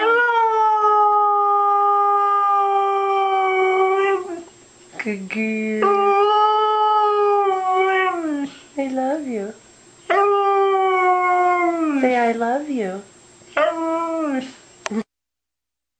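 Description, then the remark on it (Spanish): A dog howls in long, warbling, speech-like phrases, seeming to repeat a person's 'I love you', its pitch rising and falling as if mimicking human words. The loud howls come in several bursts with short pauses, and a person speaks briefly. “Ese es el perro que habla.”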